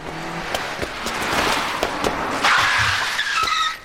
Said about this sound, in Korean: 그때 바로 앞에 승용차가 멈춰선다.